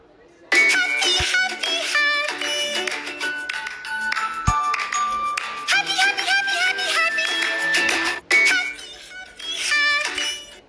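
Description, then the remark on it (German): A short TikTok sound plays from a phone speaker: busy, bright, high-pitched tonal audio with voice-like squeals and sharp hits, running steadily for about ten seconds with a brief dropout near the end. “Jetzt haben wir uns mal euren Lieblings-TikTok-Sound an.”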